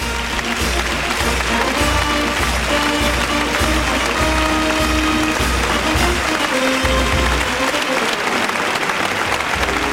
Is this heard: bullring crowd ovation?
yes